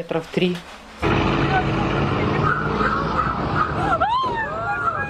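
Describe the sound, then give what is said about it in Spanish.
A Russian tank intentionally crashes into a car driving along a deserted street in Ukraine: a sudden loud burst gives way to a sustained engine roar and grinding, then high squealing sweeps near the end. Faint voices come before the impact. “Incrédulos observan cómo un tanque ruso choca intencionalmente a un auto que transitaba por una desolada calle.”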